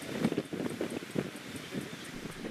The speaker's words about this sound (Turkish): Alevlere zaman zaman sınırdan da müdahale ediliyor ancak hızı saatte 32 kilometre olan rüzgar alevlerin yayılmasına neden oluyor.